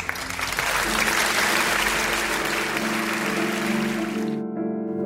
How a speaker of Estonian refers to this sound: tere kõigile, aplaus alustab